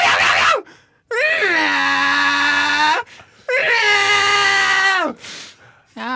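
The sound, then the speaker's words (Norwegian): A person imitates a cat that wants food, letting out two long, drawn-out nasal meows with rising and falling pitch, loud, separated by brief pauses. “Det er akkurat sånn katta vil høre ut når hun vil ha mat.”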